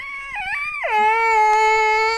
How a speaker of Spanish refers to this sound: Tengo eh, está llorando, riéndose. No sé qué le pasó. ¿Qué te pasó, hijo? ¿Estás riendo y llorando?